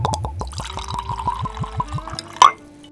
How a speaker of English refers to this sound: And what I have myself is an international release, international only release of Jack Daniels 100 proof bottled in bond. I'm going to pour it in the glass while I'm talking.